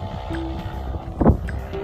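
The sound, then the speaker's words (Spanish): Motorcycles rumble past, a steady droning engine noise with whining tones that swells briefly to a louder roar before settling back to a constant hum. “Miren, son unas motos de que ibas”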